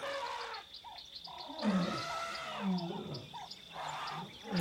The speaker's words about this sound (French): Et il réalise soudain que les voix des éléphants, des hyènes, des grenouilles, des insectes s'articulent et se complètent sans se fondre les unes dans les autres, dans un mélange de coopération et de compétition pour se faire entendre